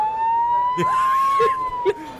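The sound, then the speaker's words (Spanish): An ambulance siren wails as one steady, high tone that rises slightly and falls again, fairly loud, with a few brief voice sounds breaking in over it, as the ambulance comes to rescue a man who collapsed with a stroke. “Abran paso, somos de la ambulancia y venimos a rescatar a este caballero que sufrió un ACV.”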